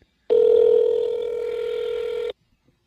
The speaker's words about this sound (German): Ich rufe mal Jetzt Konstantin an, ne?